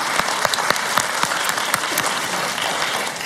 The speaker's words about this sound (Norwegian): Vi tar en, altså vi bor i applausens u-land, så vi er nødt til å bare balansere. Ja. Vi tar en applaus til for valget og for løsninga. Takk skal du ha.